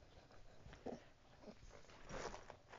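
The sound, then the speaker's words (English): A dog snorts and snuffles in a few short bursts, with soft dull thumps mixed in, fairly quiet in the background, with no one talking. “if you if you heard all of that like snorting and and uh, thumping in the background, that was that was my dog.”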